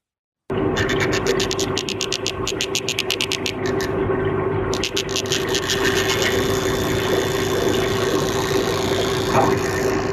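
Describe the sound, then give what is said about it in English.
Rapid trains of sharp, clicking pulses from a tiny 12 mm Danionella cerebrum fish from Southeast Asia, coming in two long bursts with a brief pause between, loud over a steady low underwater hum; the noise can exceed 140 decibels, as loud as a gunshot. “One of the world's smallest fish, a 12 mm long Danionella cerebrum, it can produce noise exceeding 140 decibels, as loud as a gunshot or an ambulance siren.”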